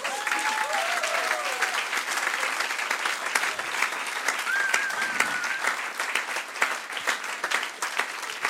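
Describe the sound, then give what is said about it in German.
A crowd applauds the leadership team steadily for several seconds, dense clapping with a few faint whoops or cheers rising briefly above it. “Können wir dem ganzen Leitungsteam einen großen Applaus geben?”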